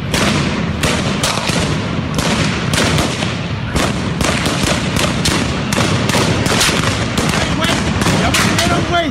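police gunfire

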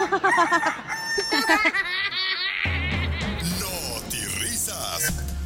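hen clucking

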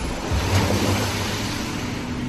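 roar of the sea

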